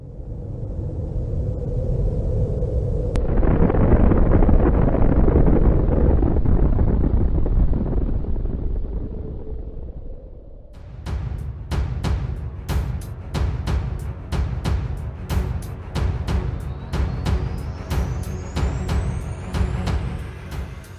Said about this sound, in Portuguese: Se você está ciente e deseja continuar, permaneça na linha após o som da explosão de uma bomba nuclear.